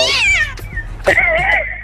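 Two loud cat meows in quick succession, the second drawn out and wavering, with no one speaking.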